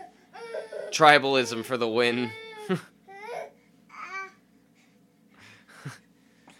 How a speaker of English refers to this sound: This baby is going crazy. I'm sorry about the constant noise in the background, but he's just not stopped. And I keep changing his position. He just keeps going off. Um, he's fighting sleep, is what's happening.